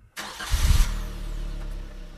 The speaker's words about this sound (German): Gestartet wird der Jimny noch ganz klassisch mit einem normalen Schlüssel, den man ins Zündschloss steckt. Genau, mit Bart.